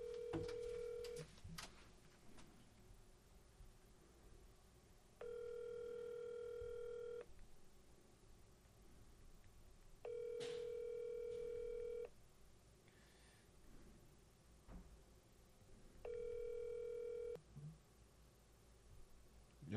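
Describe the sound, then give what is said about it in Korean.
A phone rings with an incoming call: four steady electronic tone bursts, each about two seconds long with short pauses between them, clear and fairly loud over a quiet background. “콜백 안 하는데 아 왔네 화장실 먼저 가세요 제가 전화 아, 받을게요”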